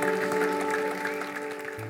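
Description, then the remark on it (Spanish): After a prayer, a crowd claps steadily and densely throughout as applause for the Lord, a sustained wash of applause with steady musical tones held underneath, fairly loud and even before easing slightly at the end. “Demos un aplauso al Señor.”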